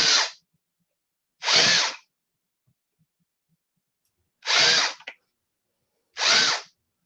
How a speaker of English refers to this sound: And then re-drill the buttonholes to enlarge them.